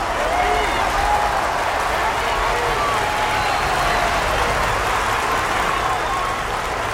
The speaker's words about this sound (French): À la fin, je salue. Le public hurle dans la salle.